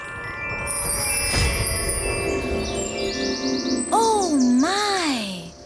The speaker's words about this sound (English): What a beautiful place Akili has come to. The birds sing so lovely here.